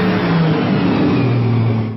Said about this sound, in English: Adrian Conan Doyle driving a red sports car.